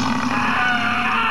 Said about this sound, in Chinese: 四面八方都响起了可怖的咆哮声和人的惨叫声